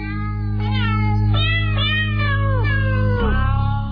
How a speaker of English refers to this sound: Those cats did sound like they were being tortured. Those are some talented cats.